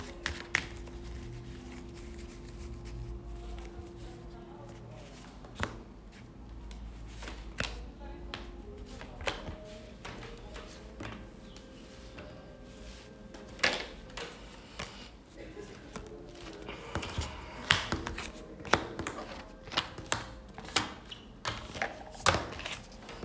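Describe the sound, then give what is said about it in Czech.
Tarot cards being shuffled for a partner reading: irregular papery slaps and riffling clicks, sparse at first and growing busier and louder toward the end, over a low steady hum. “A já už se dívám na vaši fotku, míchám to karty a my se spolu podíváme, co nám Tarot poví o vás dvou.”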